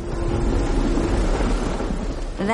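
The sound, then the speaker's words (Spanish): A heavy downpour roars steadily, with a deep rumble of thunder underneath; near the end a voice briefly starts to speak. “Y llovió, llovió a cántaros.”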